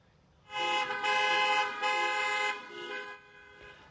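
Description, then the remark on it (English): Car horns honk in a string of long, loud blasts as a line of cars and golf carts with decorations and signs drives by in a parade for a military veteran's 100th birthday in Fort Myers, Florida, briefly breaking and resuming before trailing off into a softer honk and quiet road noise. No one speaks. “as the line of cars and golf carts drove by with decorations and signs.”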